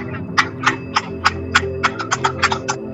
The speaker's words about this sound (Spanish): Que me está llamando mi madre que hay que hablar de ya es la hora de aplaudir, no me puedo creer. He llamado justo. Espera, no sé si lo oyes.